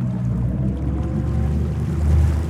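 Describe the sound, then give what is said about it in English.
A steady low engine drone from a fishing boat that has started its engines, turned around and is motoring toward the shore, with a continuous rumble and some wash or wind noise layered on top, fairly loud. “They turned the boat around and motored off after the girl and the dolphin toward the shore.”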